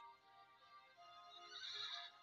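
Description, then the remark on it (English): A horse neighs in a long, quavering whinny that rises and grows brighter toward the end, fairly loud, with no one talking; any hoofbeats are hard to make out. “Get a move on, horsey. Oh, he kicked the hell out of me.”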